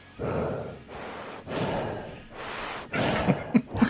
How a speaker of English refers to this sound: it's a lot of breathing, a lot of breathing.